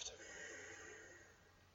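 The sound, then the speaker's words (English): A long, steady exhale through the left nostril during alternate nostril breathing, a soft breathy hiss that fades slightly toward the end, with no talking. “Close. Exhale through the left”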